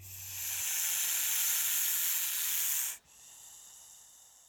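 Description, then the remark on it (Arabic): A large snake in a defensive posture hisses in a long, steady, loud breathy rush for about three seconds, then cuts off abruptly and resumes as a softer, quieter hiss. “ما مشيت كتير قبل ما تلاقي حية ثعبان كبيرة لافة حول شي بيشبه فاكهة الأناناس شكلها بيضاوي وقشرتها قاسية قربت صوبها بحذر والحية أخذت وضعية دفاعية صارت تطلع صوت فحيح”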